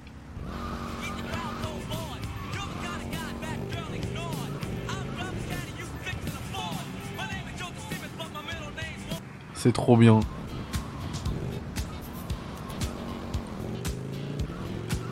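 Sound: video game car skidding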